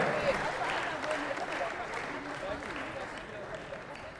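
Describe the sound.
An audience applauds steadily for medal-winning judo athletes from Kodokan and Tura Judo at an awards ceremony, a dense wash of many hands clapping at an even, fairly loud level throughout, with a faint murmur of voices underneath.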